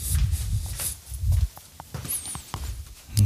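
Rummaging and handling noises: soft thumps, shuffles and sharp little clicks as objects are moved around while someone searches for a key, with a brief high chirping whistle in the middle.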